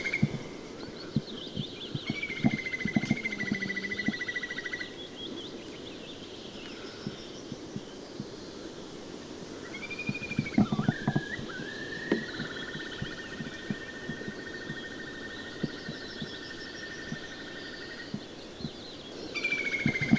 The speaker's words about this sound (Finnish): Aamu, aamuyön tunteja pohjoisessa ja pikkukuovi huutaa.